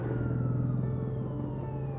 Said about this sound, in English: They had thousands of cars, sirens going by us.